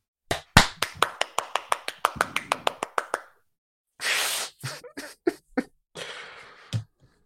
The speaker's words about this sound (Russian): Давай, хлопать ты.